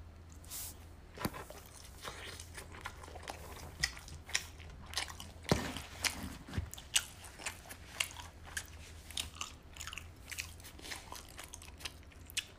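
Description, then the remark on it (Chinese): Someone bites into a cabbage-filled pan-fried dumpling and chews, with repeated crisp crunches and wet, squishy mouth sounds in an irregular rhythm, moderately loud against a low steady hum, no talking. “现在吃颗煎饺，高丽菜的。”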